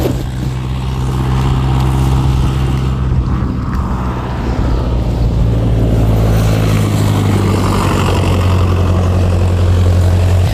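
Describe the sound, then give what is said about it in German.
A neighbor's tractor drives past in the countryside, its engine rumbling steadily with a low droning hum and shifting pitch, loud throughout, with no talking over it. “So, jetzt fährt da mein Nachbar vorbei mit seinem Traktor, das werden wir jetzt kurz abwarten.”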